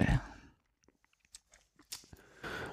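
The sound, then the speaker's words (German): A beer bottle is pried open with a bottle opener built into a lighter: a loud initial clatter, a few small metallic clicks and scrapes, then a brief burst of hiss as the cap comes off. “Aber ich mache es in den wenigsten Fällen, weil ich finde, äh, dann dürfen jetzt alle Leute hören, dass ich mir noch ein Bier aufmache.”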